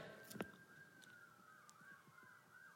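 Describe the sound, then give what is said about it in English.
A faint siren wails steadily in the background at an outdoor church service, its pitch slowly rising and falling, with a brief knock near the start and quiet outdoor ambience throughout. “There's also sirens in the background, which is fun, you know?”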